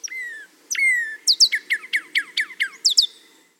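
A northern cardinal sings two long, clear downslurred whistles, then a quick run of about ten sharp, descending chip-like notes in a steady rhythm, loud and alone with no talking.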